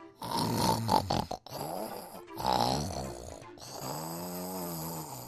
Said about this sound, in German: Und da versteckte er sich in einer Hundehütte. Aber dort lag ein großer, dicker Hund und schnarchte.